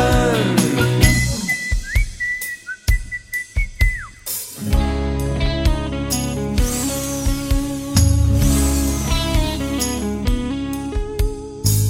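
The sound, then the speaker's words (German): A clear whistled tune with sliding pitches rises over a light musical backing for a few seconds, then a fuller, louder band takes over with steady rhythm; no one speaks. “Wir pfeifen und wir lachen und springen.”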